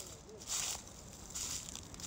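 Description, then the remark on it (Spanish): Footsteps crunching through dry leaves on a walking path below the Medellín Metro rail tracks and tree canopies: two soft, crackling bursts of rustle about a second apart, fairly quiet, with faint background murmur between them. “Debajo de mí están las hojas secas que no dejan que los pasos sean mudos. Amo ese sonido.”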